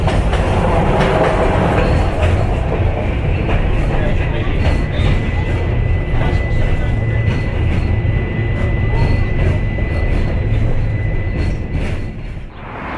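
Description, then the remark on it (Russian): A tram in Novosibirsk, Russia, heading for the Avtovokzal (bus station) stop, rolls along the rails: a loud steady rumble broken by irregular clacks over the track joints and a thin high whine, easing off slightly at the end. “Именно здесь, в городе Новосибирске, недалеко от трамвайной остановки «Автовокзал» и перекрестка улиц Серебряниковской и Кривощековской,”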